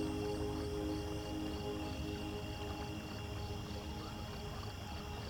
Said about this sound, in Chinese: 丰沛的河水从二十多米的山崖上落下，发出饱满立体的轰鸣声。